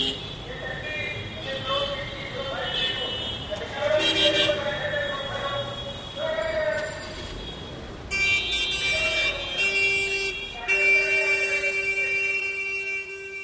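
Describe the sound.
Busy street traffic with car horns honking almost nonstop, overlapping short toots and long sustained blasts, loud and close, over a steady rumble of vehicles and distant voices.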